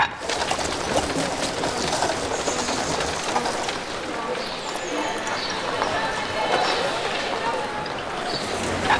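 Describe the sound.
Horses shuffle and clop at a river watering trough on the Seine in Paris amid a busy outdoor bustle, with pigeons cooing and chirping birds, running water and a steady murmur of voices throughout.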